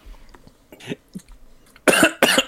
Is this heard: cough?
yes